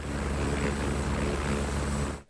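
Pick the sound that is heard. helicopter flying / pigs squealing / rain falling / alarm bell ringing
helicopter flying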